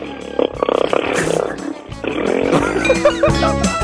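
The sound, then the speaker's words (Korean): A second-year female high school student's voice mimics a motorcycle engine on Park Myung-soo's Radio Show, producing loud, gravelly growls that rise and fall like revving throttle bursts over a few seconds, with no words spoken. “오늘 어떤 거 준비하셨습니까? 저 오토바이 준비.”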